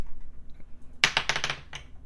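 Dice are rolled to decide the order of turns, tumbling and clattering across a hard surface in a quick burst of sharp clicks that trail off after about a second, following a moment of near silence. Moderately loud, with no talking.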